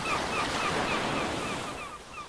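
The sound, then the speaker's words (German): Baltic Sea waves wash steadily onto a beach in a continuous, loud rushing roar, with faint, repeated gull calls in the background and no talking. “Also ich könnte jetzt echt eine halbe Stunde lang einfach nur dieses, oh, dieses Wellenrauschen hören und dann noch die Möwen dazu.”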